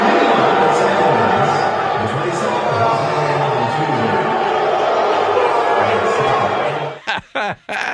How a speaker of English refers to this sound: they all got booed the entire time. I don't know if you watched that game. It was on ESPN, but every time Altuve, Bregman, Correa all stepped up to the plate. They're just getting hammered, man. They're getting booed uh, just mercilessly.